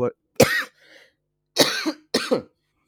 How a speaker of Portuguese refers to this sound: Perdão. Ai, a tosse. Perdão.